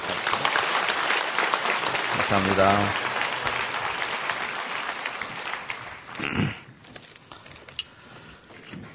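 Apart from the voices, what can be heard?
audience applause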